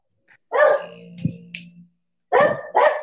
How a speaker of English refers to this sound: Sorry, my dog's barking. Hey, come on, let's get outside.